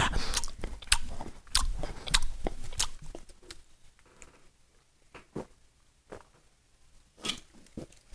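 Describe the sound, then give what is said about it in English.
Someone drinking a Rockstar energy drink right up against a microphone, with wet mouth clicks and swallowing sounds, dense and loud for a few seconds, then sparser and softer. “I could just like drink rock stars into the into the mic for you.”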